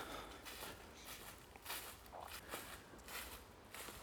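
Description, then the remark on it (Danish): Steady footsteps walk along Kongens Højmose Allé, a dead-straight avenue through a forest in Denmark flanked by towering alder trees, each step a soft crunch at an even, unhurried pace, quiet, with no talking. “Jeg går af øh, det, der kaldes for Kongens Højmose Allé. Jeg øh, er ude i skoven.”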